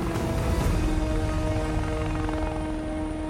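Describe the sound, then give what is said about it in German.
A helicopter's engine whines and its rotor blades roar at high power as they shift into a higher gear to lift out of a volcanic crater, a loud, continuous drone with steady tonal hum throughout. “Doch dann hört er das Heulen der Rotorblätter, die einen höheren Gang einlegen.”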